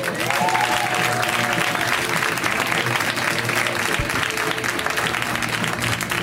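A crowd at a comedy show claps loudly and steadily for several seconds, a dense, continuous wash of applause with some faint cheering mixed in.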